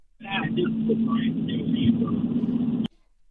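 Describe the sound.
Steady low car-interior road rumble heard through a narrow, tinny phone line from a caller in a car phoning the Shaw's Patriots postgame radio show, with faint muffled voice fragments on top, running a few seconds before the call drops abruptly into silence.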